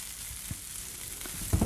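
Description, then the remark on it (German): Tofu seasoned with garlic and onion powder fries in a pan and is turned, with a steady, bright sizzling hiss throughout, broken by a few soft, low knocks, the last ones slightly louder at the very end. No one speaks. “Moment, ich rieche den Tofu. Ich wende ihn.”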